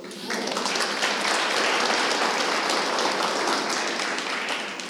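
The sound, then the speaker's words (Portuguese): An audience applauding together in praise of the Lord, a dense, steady wash of many hands clapping that starts abruptly and holds loud for several seconds before easing off slightly at the end. “Amém, vamos aplaudir o Senhor?”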